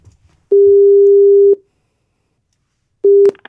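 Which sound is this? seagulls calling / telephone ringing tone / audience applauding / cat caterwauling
telephone ringing tone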